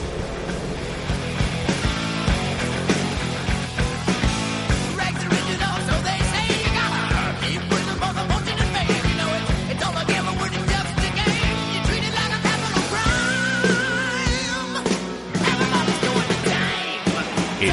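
A loud rock song plays throughout, with driving drums, dense distorted guitars and shouted vocals over a steady, energetic beat.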